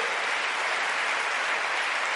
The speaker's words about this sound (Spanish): Démosle ese aplauso fuerte a ese Señor, aleluya.